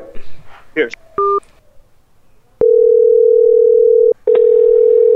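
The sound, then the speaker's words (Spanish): A brief bit of voice opens, then a single short keypad beep, followed by a loud, steady telephone dial tone humming on for several seconds with one brief break, as a phone call is being placed. “Estamos aquí llamando”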